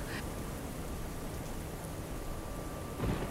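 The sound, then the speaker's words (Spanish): Steady, heavy rainfall hisses continuously, dense, with a brief low rumble swelling near the end like thunder, as rain at sea at night strengthens into a storm. No one speaks. “Empieza a llover poquitito y poquitito, después empieza como a tomar más fuerza la lluvia y se convierte en una tormenta y yo dije, bueno, ya aquí, si estoy perdida en el mar, aquí ya perdí la cabeza.”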